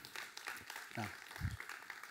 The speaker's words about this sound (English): it's a hard, this is a hard message to clap to. I know it was like a, it was like a slow fading in, fade out.